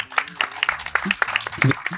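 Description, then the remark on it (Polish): A crowd of guests at a recording in front of a live audience applauds, a dense, irregular patter of overlapping claps that holds steady for about two seconds, with a few voices murmuring underneath. “Te brawa są od nich, także sami sobie dali, dobrze?”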